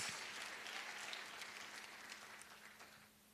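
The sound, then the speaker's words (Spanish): An audience claps to the Lord in a dense, sustained wash of handclaps, bright and crackling, holding steady at a fairly loud level before thinning slightly at the very end. “Dele más fuerte esa palmas al Señor, hombre.”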